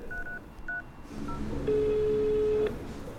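Several short telephone keypad beeps at uneven intervals as a call is dialled to ask about care institution Kompas GGZ, followed by a longer steady phone tone lasting about a second, heard clearly over a faint low background rumble with no talking.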